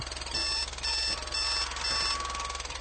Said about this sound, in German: Wenn der Wecker klingelt.